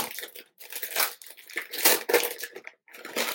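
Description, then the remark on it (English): Paper crinkles and tears in a run of bursts, loud, bright rustling and crunching in uneven waves with brief pauses, as expensive wrapping paper is ripped open from a gift box given as a present; no one speaks. “Please now uh, narrate yourself opening a box.”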